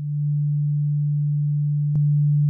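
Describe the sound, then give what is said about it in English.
A steady, low sine-wave hum holds one unchanging note; near the end a brief click sounds and the tone grows slightly louder as a second sine wave joins on the same pitch. “And that's two sine waves playing the same note.”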